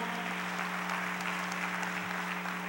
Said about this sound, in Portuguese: Quem acredita nisso, diga glória a Deus. Vamos lá? Pode aplaudir o Senhor.